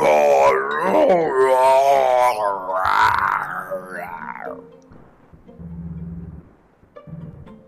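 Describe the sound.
A single voice imitates eerie murmurs, groans and wavering moans, rising and falling in pitch for several seconds, then trailing off into low, indistinct murmuring. Fairly loud.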